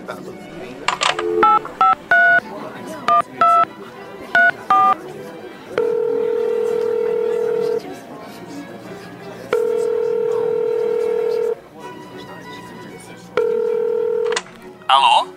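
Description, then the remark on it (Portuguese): A phone keypad is dialed to call home, with a quick series of short dual-tone beeps, followed by several long ringback tones separated by pauses, clear over faint background noise. “Eu posso ligar para minha casa para contar essa novidade?”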